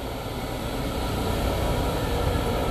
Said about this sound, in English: Sounds like a tow truck next to me. is that my Jeep? Anyways, uh, oh, it's a semi actually. Got semis like merging from my right onto my left.